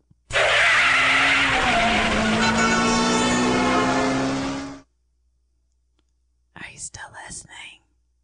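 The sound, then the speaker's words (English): A car engine revs loudly and steadily for several seconds as the car pulls away from where it was pulled over on the side of the road, with tire and road noise, then cuts off; a brief whispered voice follows after a pause. “I'm pulled over in my car on the side of the road here to give you these closing thoughts, but now it's really time to head out.”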